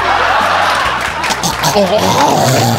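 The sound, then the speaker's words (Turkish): A voice loudly imitates a snorer starting back up after their breath stops, a rough, raspy vocal rumble that runs continuously for a few seconds, with no other talk. “Çünkü arada horlayanın nefesi kesilir ya tamam işte yaşasın öldü derken”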